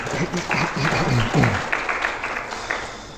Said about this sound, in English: you guys never clap after I preach, but you clap after they, after they sing their songs, huh?